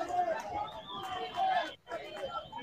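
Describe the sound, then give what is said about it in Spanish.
A dense crowd of football fans shouts and chatters in a stadium, some shouting strong words, a loud continuous wash of overlapping voices that briefly drops out before surging back. “Porque acá, aquí están los hinchas que le están gritando a... ah, les, están gritando también palabra fuerte.”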